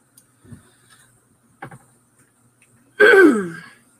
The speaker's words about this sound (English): so you don't have to hear me clear my throat.